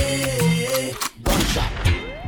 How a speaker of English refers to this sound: Gunshot, AK. Gunshot, AK. AK.